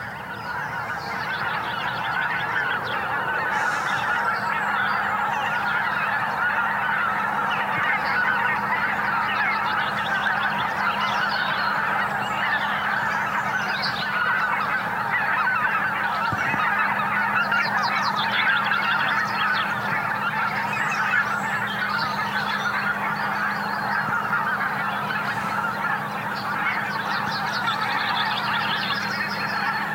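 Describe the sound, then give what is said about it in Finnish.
A large flock of returning geese honks continuously, dozens of overlapping calls forming a dense, loud clamor that carries on steadily without a break, with no voices. “suunnilleen tuntia myöhemmin kuitenkin hanhet palasivat ja sillä kertaa sitten äänen kanssa.”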